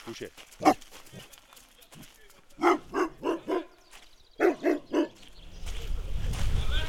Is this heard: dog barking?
yes